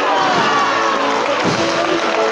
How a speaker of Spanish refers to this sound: Y con el aplauso, los vivas de mucho público aquí congregado, pues se incrementa la cantidad de pétalos que caen.